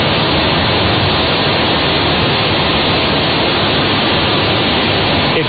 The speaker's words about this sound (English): I just want you to hear the wind right outside this doorway. Just, just take a listen to this.